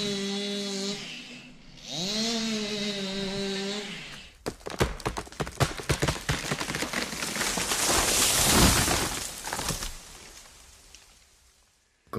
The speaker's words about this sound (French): mais nous avons rapidement établi un protocole d'accord sur les conditions d'abattage, notamment en ce qui concerne la standardisation des tronçonneuses et la réduction de leurs nuisances sonores.